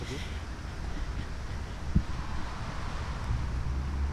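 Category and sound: nature, strong wind blowing outdoors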